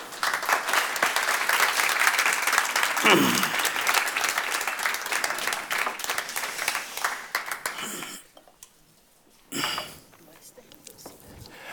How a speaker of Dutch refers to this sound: Geef haar hartelijk applaus. Haar Excellentie Olita Lebelo.